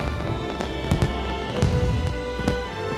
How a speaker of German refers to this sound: Ich, ich versuche jetzt mal ehrlich zu sein, ob ich es geschafft hätte. Naja, doch. Also spätestens wegen des Feuerwerks.